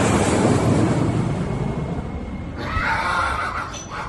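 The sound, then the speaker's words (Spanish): A she-donkey, meant as a gift for Barack Obama at the airport in Cartagena, brays once, a short, harsh, wavering call lasting about a second, heard over a steady rushing noise like wind or surf. “¡Se te quedó la burra! ¡Se te quedó la burra!”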